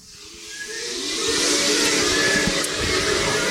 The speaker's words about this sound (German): Das Labor zieht und zischt.